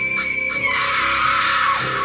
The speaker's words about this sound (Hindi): एक radio add बजवाई जिसकी शुरुआत होती थी बहुत सारी चीखों से